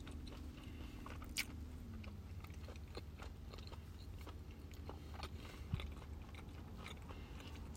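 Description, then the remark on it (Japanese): Wet chewing of a soft 7-Eleven teriyaki chicken and egg sandwich, with steady mouth noises and small crunchy bites repeating throughout, heard alone with no talking. “ちょっと咀嚼音がしますのですみません。”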